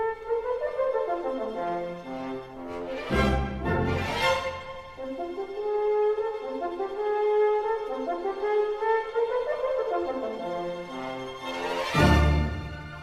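A playful French horn solo from the opening of Richard Strauss's Till Eulenspiegel winds through a bouncing, sliding melody, punctuated by a few bright orchestral bursts and cymbal-like crashes, played loud with no voices.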